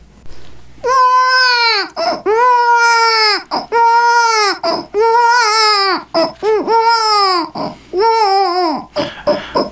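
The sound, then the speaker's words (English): A baby cries loudly, letting out about six long, strained wails in quick succession with brief gasping breaks between them. “We listen now to a conversation between Father Time and the New Year's baby.”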